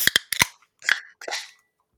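Two beer bottles are opened to be drunk, one just after the other: a few sharp metallic clicks from the caps, then two short, hissy gas releases in quick succession.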